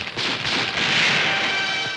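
The first gunshots of a shooting crack through the streets: several sharp cracks ring out at uneven intervals, buried in a dense, steady hiss of street noise with no voices.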